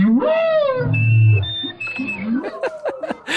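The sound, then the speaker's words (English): Deep, swooping humpback whale calls rise and bend beneath steady, reedy tones of a live clarinet broadcast through an underwater speaker and picked up by an underwater microphone, the two weaving back and forth in a strange duet, with a low rumbling moan partway through. “And you hear this duet from down there, live clarinet and wail.”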